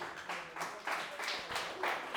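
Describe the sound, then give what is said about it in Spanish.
A church audience applauds for the Lord during a sermon, steady clapping with a loose rhythmic pulse that carries on for a couple of seconds at moderate volume, with no voices standing out. “Démosle un aplauso al Señor.”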